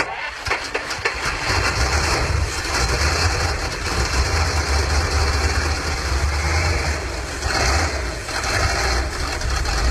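The engine of a vintage 1969 Chaika car starts for the first time and idles with a deep, steady rumble and a loud, continuous mechanical drone, running without pause for the whole stretch and with no voices.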